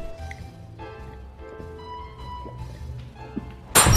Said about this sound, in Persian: افرا لیوانو پرت میکنه روی زمین سهیل هم لیوانو میندازه